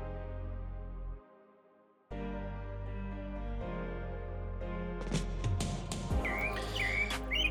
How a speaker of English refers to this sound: as I'm competing with these birds that are aggressively chirping right now.